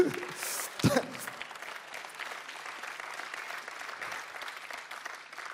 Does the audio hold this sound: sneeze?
no